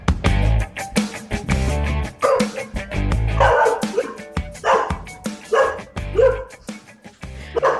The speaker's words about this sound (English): I locked the dog up, but I can't stop her from barking.